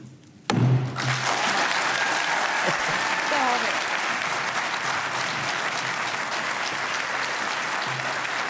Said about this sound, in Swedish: det här eh, var ju en applåd som aldrig tog slut. Jag var tvungen att klippa den, men den tog ju aldrig slut. Folk ställde sig upp och applåderade.